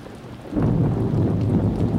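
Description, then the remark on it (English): A thunderstorm surges in after a brief quiet moment, with a deep rumble of rolling thunder over steady, hissing rain that stays loud to the end. “Maybe by next week the storm will have cleared up.”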